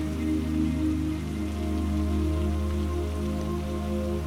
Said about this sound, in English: You feel very grateful for the rain showering you down with this peaceful relaxation.